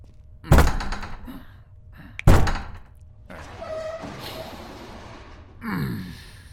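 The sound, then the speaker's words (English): A door being forced open: two heavy thuds a couple of seconds apart, followed by strained creaking and scraping with effortful breathing, no talking. “Focus on the job. Get the door open. I'm on it.”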